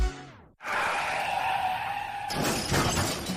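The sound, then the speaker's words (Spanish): A brief, sharp car crash sound effect of a traffic accident: tires screech in a sustained high skid, then an impact bursts into shattering glass and clattering debris, loud, with no voices. “Después de sufrir un accidente de tráfico”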